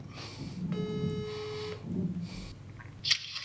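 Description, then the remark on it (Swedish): A single steady ringing tone from a phone line while a call is being placed, about one second long, faintly buzzy and heard as if through a handset, with low background noise and a short click near the end. “Så jag tänkte vi ringer upp Ulrika och frågar lite grann om det översättningsarbetet och boken.”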